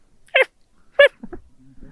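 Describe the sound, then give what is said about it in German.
Someone imitates a hoarse little yapping dog, like a small dog with a bad cold, with two short, raspy yaps about half a second apart, fairly loud, followed by quiet low murmuring. “Wie, wie ein sehr erkälteter, kleiner, kläffender Hund, würde ich es beschreiben.”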